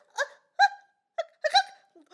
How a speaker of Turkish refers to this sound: ben bir hıçkırığı durdurmaya kimsenin gücü yetmez. Çünkü aranızda en durdurulamaz olan benim.